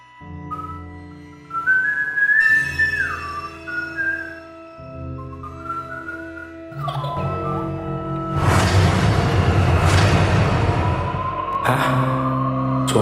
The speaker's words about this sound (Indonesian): Sambil menunggu air panas, aku sedikit bersiul-siul untuk mematikan rasa bosan.